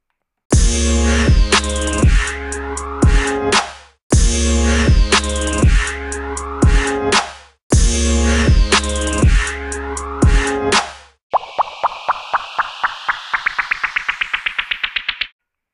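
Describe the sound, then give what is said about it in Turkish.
A short loud music interlude: a rhythmic phrase with a strong beat repeats three times, then gives way to a rapid series of bright plucked or struck notes that speed up. No one speaks. “O yüzden burada küçük bir müzik sokmak zorundayım.”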